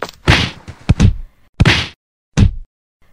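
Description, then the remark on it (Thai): Villagers beat a fox: a series of loud, sharp whacks and thwacks, about five blows in an irregular rhythm, some with a brief swishing tail. No voices. “พอดีกับที่ชาวบ้านวิ่งมาถึง ต่างช่วยกันทุบตีเจ้าหมาจิ้งจอกเป็นการใหญ่”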